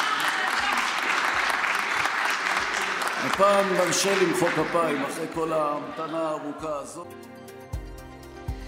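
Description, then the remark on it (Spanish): An audience applauds with dense, steady clapping while voices shout and cheer over it, after Levin allows applause for Israel having an elected government after more than 500 days of crisis; the clapping carries on until it gives way to a short musical sting at the end. “Por esta vez, dijo Levín, les vamos a permitir aplaudir después de una espera tan larga, pero, como era de esperar, no todos los presentes aplaudieron.”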